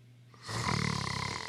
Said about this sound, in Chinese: 帐篷里的小猪终于。睡了个安稳觉，帐篷小猪打起呼噜，一声声传出两个字儿：